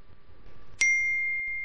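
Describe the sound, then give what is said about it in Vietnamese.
A single bright chime rings out suddenly, a crisp electronic ding of a mobile phone message notification, its clear tone lingering and fading slowly over a quiet background with no talking. “tiếng chuông trong trẻo như nước suối”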